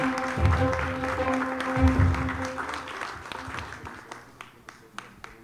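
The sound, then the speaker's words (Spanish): Audience applause at a pageant as a contestant receives a sash for winning the social media vote: a dense, loud wash of clapping over low thumps and a sustained tone, thinning out toward the end into a few scattered individual claps. “Fuerte los aplausos para Sadel.”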